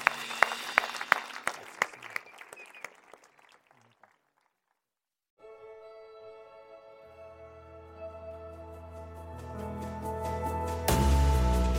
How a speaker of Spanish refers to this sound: En el nombre de Jesús. Amén. Demos un aplauso.